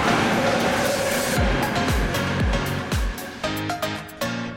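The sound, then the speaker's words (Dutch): A large train rushes past at Schiedam Centrum, a loud, steady roar of rushing noise with a rhythmic series of heavy wheel clacks over the rail joints, no talking. “Oh, er komt een hele grote trein langs nu.”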